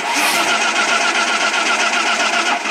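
An old car engine, loud, sputtering through its start with a continuous rattling, rapidly pulsing drone that holds steady for the whole moment, with no one talking.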